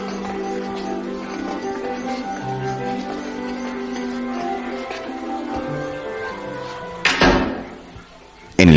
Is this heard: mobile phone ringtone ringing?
no